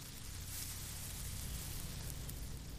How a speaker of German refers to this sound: Ich glaube, ich höre ein Zischen aus der Küche. Ist das der Kochtopf? Ich gehe mal nachsehen, okay?